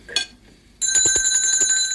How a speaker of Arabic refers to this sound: ايه ده جرس انتهاء العشاء لا ده جرس الشازلونج